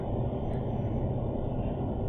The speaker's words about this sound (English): Big car comes rolling up real quick.